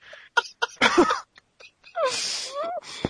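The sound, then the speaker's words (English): A sharp sneeze bursts out amid short breathy, giggly vocal sounds, followed by a longer airy exhale with a rising and falling voiced squeal. “It sounded like somebody tickled you and then you sneezed.”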